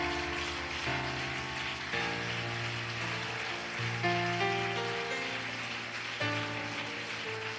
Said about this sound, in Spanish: Porque qué no le da ese aplauso bien bonito al Señor?